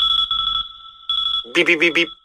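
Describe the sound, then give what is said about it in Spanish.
An alarm clock beeps in two quick bursts of steady, high electronic tones, fairly loud, followed by a voice mimicking the beeps with four short rhythmic syllables. “Si un bip bip bip bip consigues sacarte de tu cama una mañana de diciembre,”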